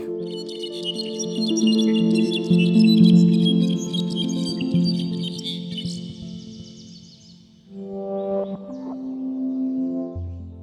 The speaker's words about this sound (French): Habituellement, quelques secondes après la fin du chant d'un solitaire, on entend un au loin qui répond. Il se renvoie la balle comme ça pendant quelques heures le matin.